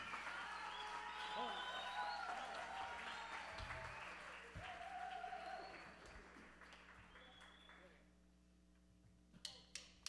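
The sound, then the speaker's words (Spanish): An audience at a Mexican salsa music performance applauds the band's director, with steady, dense clapping mixed with crowd noise for several seconds, then the applause thins and fades out, leaving a few sharp isolated claps at the end. “Apoyen la salsa mexicana que tiene mucho, pero mucho que dar y sobre todo un aplauso a nuestro director que es el creador de toda, de toda esta música.”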